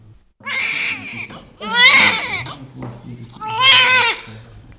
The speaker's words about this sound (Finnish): Tässä kuullaan vauvan ihka ensimmäiset parkaisut heti syntymän jälkeen – Jälleen kerran uusi aivan ainoalaatuinen pieni ihminen on tullut maailmaan.